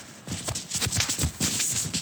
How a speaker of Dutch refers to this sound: Er loopt iemand.